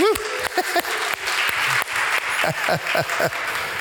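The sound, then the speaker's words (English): An audience at a worship service claps steadily for several seconds, a dense, fairly loud wash of many hands, with scattered voices calling out and cheering over the applause. “no, we, we, we like to clap. We like to clap.”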